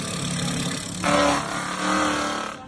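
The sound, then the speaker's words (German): A milling machine grinds along the edge of an ice rink, a steady motor whine with a harsh scraping roar that swells louder partway through, then eases off. “Als erstes muss man aber mit einer Fräse die Kante vor Schläfbahn schleifen und das tönt dann etwa so.”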